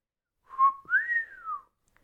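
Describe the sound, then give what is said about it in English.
A wolf whistle, a short low note followed by a longer pitch that swoops up and glides back down, clear, with no talking around it. “When she exits the bedroom and performs a twirl for Harry, he lets out a low wolf whistle,”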